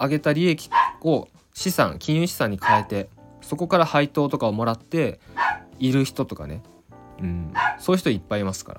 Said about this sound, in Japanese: ちょっとすいませんね今後ろであのトイプードルもっちゃんがちょっと吠えてるんですけど